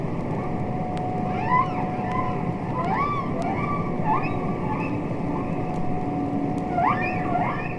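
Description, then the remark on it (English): Humpback whale song from recordings made by Roger Payne: a series of rising and swooping tonal calls repeats every second or so over a steady underwater rumble and hiss, with a faint sustained hum and no voices. “Which was itself given voice by the recordings of humpback whale songs uh, made by Roger Payne.”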